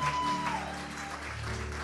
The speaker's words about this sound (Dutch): nog één keer fantastisch feliciteren met een applaus.